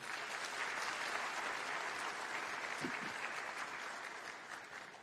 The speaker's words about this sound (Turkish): Kendilerine il dışından gelen bu iki gücü de insanımıza, huzurlarınıza güzel bir alkış rica ediyorum.